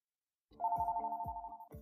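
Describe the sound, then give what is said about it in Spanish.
A telephone rings with a steady electronic tone, pulsing in a quick repeating pattern for just over a second, clear, then cuts off abruptly as a customer service call begins. “Ok, sin más preámbulos, escuchemos la llamada y tú presta mucha atención.”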